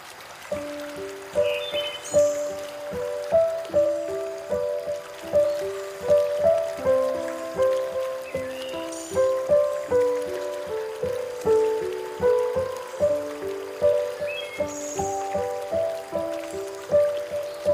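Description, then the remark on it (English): Flowing river water burbles steadily throughout, with gentle, repeating melodic plinks and drips layered on top at a relaxed rhythm. A calm river out in nature, with no voices. “Let's close our ojos or eyes together and pretend we're on a beautiful caminata or a beautiful hike next to El Rio or the river out in nature together.”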